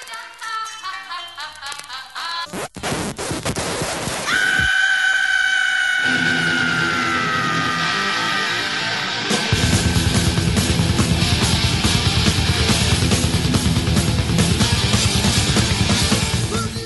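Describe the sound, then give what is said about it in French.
A thin, old-sounding vocal passage breaks off into a harsh burst and a held, screaming tone, then a loud, fast heavy metal band crashes in with dense drums and distorted guitars: the controversial intro of the opening track of an album by a German heavy metal band. “J'ai choisi le premier morceau de l'album, …, qui avait une intro très controversée.”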